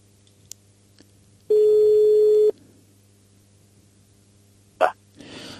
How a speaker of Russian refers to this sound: Так, у нас звонок. Сейчас мы пытаемся дозвониться.